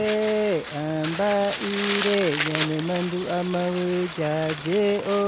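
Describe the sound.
A fire crackles and snaps steadily as small twigs are fed into it, the dry popping texture running beneath a sustained, melodic voice that chants or sings throughout.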